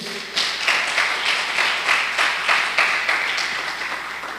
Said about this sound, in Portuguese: Você pode dar um aplauso ao Senhor aí?